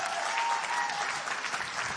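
A crowd applauds steadily as a person is welcomed onto the stage, a dense, continuous wash of many hands clapping at an even loudness throughout, with no voices standing out.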